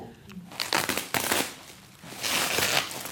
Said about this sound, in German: Das hat ihn so genervt, dass er das Papier zerknüllt hat. Et, il a froissé le papier.